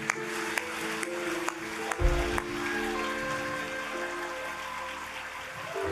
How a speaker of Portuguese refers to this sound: Quer aplaudir? Aplauda forte ao Senhor.